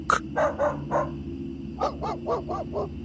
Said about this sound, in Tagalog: Lumapit ako sa bintana para silipin yung mga aso namin. Bis oras kasi ng gabi ay panay ang tahol ng mga ito. Nang tingnan ko sila, tinatahulan nila ang iisang direksyon.